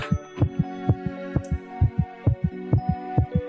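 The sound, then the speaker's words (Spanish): A steady heartbeat thumps with deep paired beats repeating evenly over a low sustained hum, with no talking. “A ver, si te quedas latiendo así toda la nota, no te voy a entender nada.”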